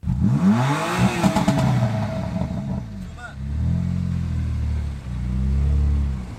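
The 450-horsepower engine of a BMW M4 Competition luxury sports car revs up and down loudly, its pitch sweeping, then settles into a deep, steady throaty rumble as the car rolls into the parking lot at Strandvägskajen on Strandvägen in central Stockholm.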